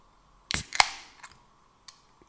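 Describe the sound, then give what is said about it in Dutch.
A drink can, a can of kielmes, is cracked open: a sharp metallic snap, then a louder pop followed by a short fizzing hiss that fades, with a couple of faint clicks afterward. No one speaks. “Blikje kielmes in de hand.”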